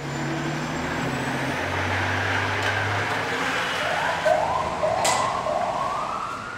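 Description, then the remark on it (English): A fire engine's siren starts up and wails in repeated rising sweeps over the deep rumble of a heavy diesel engine pulling out as the crew leaves on a call to help someone in the community, loud, with no talking. “Engine 2 is about to get a run, so you'll see all of the members come down, quickly get on the engine and uh, go out and see what's going on, who in the community is uh, in need of help at this time.”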